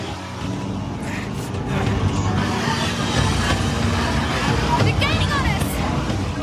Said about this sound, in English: you drive the hell out of that truck.